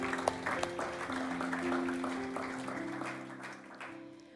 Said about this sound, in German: Lass uns doch mal einen Applaus geben für unsere Locations. Come on, wir lieben euch. Ihr seid der Hammer.